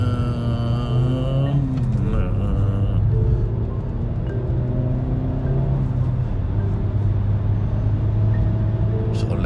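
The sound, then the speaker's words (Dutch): A car engine revs up as it drives near the roundabout at Dieren, between Zutphen and Brummen, a loud continuous rumble whose pitch climbs and drops with gear changes, steady throughout the whole stretch. “pittig karretje hoor.”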